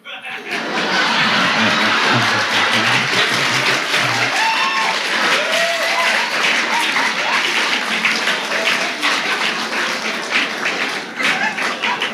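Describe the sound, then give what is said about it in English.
Loud, sustained applause from a crowd, coming from the back part of the audience, dense and steady clapping lasting over ten seconds, with scattered voices and some laughter mixed in. “That applause all came from the back part, not the Church of Religious Science.”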